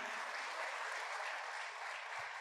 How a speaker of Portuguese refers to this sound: Você pode aplaudir o Senhor por isso? Amém? Se puder ser mais forte, porque é para Jesus, né?